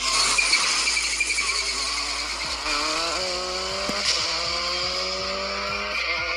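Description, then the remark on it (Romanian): A rally car engine revs hard, its pitch climbing in repeated surges as it shifts through gears, with a harsh buzzing rasp and no voices. “Mamă, deci era VRC în toată cum regula. trebuie să facă o mașină de curse, da?”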